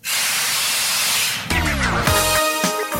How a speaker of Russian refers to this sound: Сейчас кто-то стоп-кран сорвет, так? Да, а, сорвали стоп-кран. Стоп-кран!